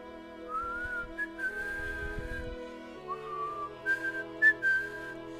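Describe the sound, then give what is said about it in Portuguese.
A transverse flute plays a slow, breathy melody of long held notes that rise and fall, over a steady low droning accompaniment, with no one talking. “E de repente, Lian saca suas sua flauta transversal e começa a tocar.”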